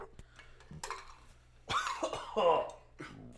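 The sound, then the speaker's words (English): A low, throaty burp-like gurgle followed by a harsher cough, fairly loud, with a few faint clicks before it and a brief trailing breath after. “There was like a burp finished with a cough.”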